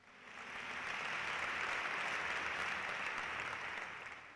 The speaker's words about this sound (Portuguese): Você pode dar uma salva de palmas bem forte para Jesus?